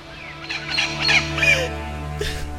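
A parakeet named Tuki Tuki, injured after being accidentally crushed, squawks in a burst of harsh, raspy calls, pauses, then lets out one more short squawk over a steady low background hum.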